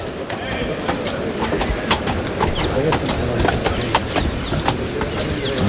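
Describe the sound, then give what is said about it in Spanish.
Horse hooves clip-clop in a quick, steady run of sharp beats over a dense murmur of crowd noise and talking voices, from a horse named Romeo in a bullring during a bullfight. “por aquí Quinta con el caballo, con Romeo.”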